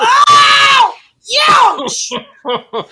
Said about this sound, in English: Would either of you care to investigate these screams and hollers? This Interesting. Is- it's so coming from the coach train cars